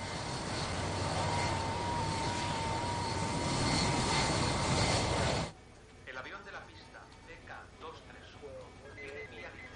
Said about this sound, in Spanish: El avión empieza a moverse.